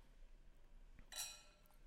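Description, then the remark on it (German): Wine glasses of Primitivo di Manduria clink together in a quick toast, a bright, ringing chime that lingers briefly before fading, with faint room noise. “Ey, Prost!”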